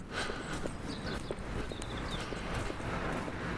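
Horse hooves clip-clop in a steady, even rhythm, a string of sharp knocks repeating throughout against a constant outdoor background hum, clear.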